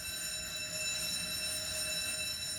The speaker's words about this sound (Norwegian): Det er brannalarmen!